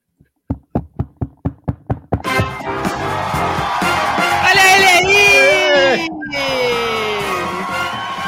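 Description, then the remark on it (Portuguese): A rapid series of about eight sharp, evenly spaced knocks on a door, followed abruptly by a loud burst of cheering, whooping and overlapping excited voices. “você tem que bater na porta, aí bate na porta e aí você entra.”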